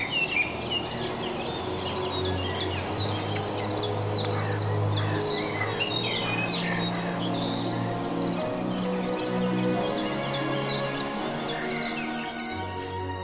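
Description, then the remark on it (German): A common blackbird sings from the very top of a tree amid a busy outdoor chorus of chirping birds and buzzing insects, with a steady low rumble underneath throughout; no one speaks. “Die Amsel, gell? Die sitzt da vorne. Immer ganz oben.”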